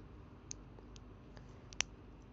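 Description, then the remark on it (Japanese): Taped-up broken Sony earphones creak as they're handled: a few quiet, irregular clicks and ticks with one sharper snap near the end, and no one talking. “ミシミシっつってんだよ、もう。テープで。”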